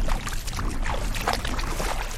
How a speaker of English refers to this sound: took me wading in the waters of Pleasant Bay on Cape Cod. Okay, we can enter the water here, and we're going out on a very shallow uh, sandbar